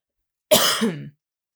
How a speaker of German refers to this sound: Das ist der Huster.